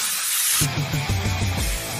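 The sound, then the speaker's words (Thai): A sharp burst of aerosol spray from a blue can of high-quality chain lubricant, for motorcycle and bicycle chains and cables, hisses loudly for about half a second, then settles into a softer spray while low musical notes play underneath. “สเปรย์น้ำมันฉีดโซ่คุณภาพสูงเวลลอยเชลลูปกระป๋องสีฟ้า ด้วยคุณสมบัติแทรกซึมลึกถึงก้านและข้อต่อ ช่วยให้ทนแรงดึงและแรงกระชากได้อย่างดีเยี่ยม ยืดอายุการใช้งาน ป้องกันสนิมและฝุ่น”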